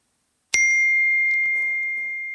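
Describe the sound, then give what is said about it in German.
A single bright phone text message (SMS) notification ding rings out clearly and lingers, its clean tone slowly fading over a couple of seconds, with faint background murmur beneath it. “Ups, ein SMS.”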